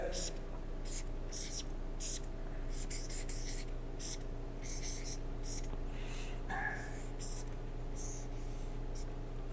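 Dry scratching of a pen writing four letters by hand on paper, coming in short, irregular strokes and bursts over a steady low hum, with no one talking.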